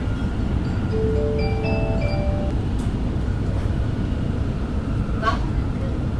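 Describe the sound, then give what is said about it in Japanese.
Inside a moving train, a short melodic chime rings out over the steady, loud rumble of the carriage, followed by a muffled onboard announcement voice blending into the engine noise. “ちょっと車内アナウンスがうるさいですうるさいですね”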